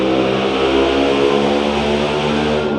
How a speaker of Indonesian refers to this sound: ya Allah itu motor ya